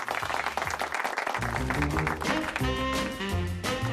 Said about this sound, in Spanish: Venga, pues un aplauso, claro que sí. Bravo. estoy aplaudiendo, estoy aplaudiendo.